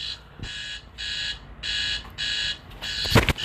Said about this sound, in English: of course, we got alarms going off.